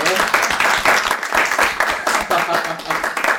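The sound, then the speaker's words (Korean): A steady burst of audience applause, many hands clapping together in a dense, continuous patter for a few seconds at moderate loudness; applause for a listener whose golf story was read on the show. “이제 앉아 계신는데 심심한데 이분한테 박수 한번 쳐주십시다.”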